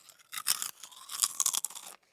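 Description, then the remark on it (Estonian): Crisp crunching of a cookie being bitten and chewed, a burst of dry crackly bites lasting about two seconds with no talking. “no krõbista. ühe Google'i küpsise selle peale.”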